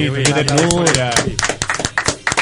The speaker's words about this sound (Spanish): un aplauso.